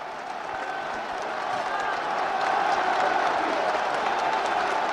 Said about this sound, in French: Et sous des acclamations, il gravit lentement la tribune. Il accède maintenant, les bras levés en V selon son geste familier, devant la foule qui l'acclame.